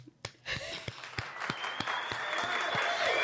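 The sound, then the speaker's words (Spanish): A few scattered claps quickly swell into steady, dense applause from a group for a taxi driver, holding at a fairly loud level until the end. “Un aplauso para el tachero.”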